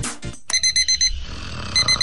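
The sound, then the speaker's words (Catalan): An alarm clock rings with a burst of five quick, shrill electronic beeps, pauses briefly, then starts beeping again. It is loud, with no voices. “desperta, eh? que tornem els dissabtes al matí. És hora de canviar el despertador.”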